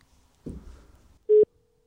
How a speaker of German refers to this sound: Hier ist ähm, Con am Telefon. Ich rufe dich jetzt wieder an.